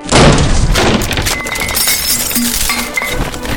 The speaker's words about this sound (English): Then the door exploded inward,